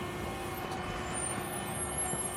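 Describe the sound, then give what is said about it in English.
A bus rumbles, its engine a steady, heavy low drone with a faint high hiss, continuous throughout the short moment with no one speaking. “Ist das nicht dein Bus?”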